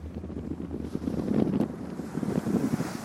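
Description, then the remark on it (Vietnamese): Wind buffets the microphone while waves slap and wash against the hull of a ship at sea, heading away from the mainland toward an offshore archipelago in rough end-of-year seas and strong wind; a steady, loud rumble with surging swells and no voices. “Càng đi xa đất liền, tiếng sóng vỗ mạnh hơn, tiếng nói cười ít dần.”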